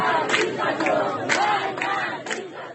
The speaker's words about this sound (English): she was noticing all kinds of chants that protesters are are saying